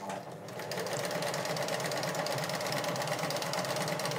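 A sewing machine runs steadily while stitching a shirt, its rapid mechanical stitching forming a fast, even rattle with a low motor hum underneath, constant in loudness for the whole stretch with no one speaking.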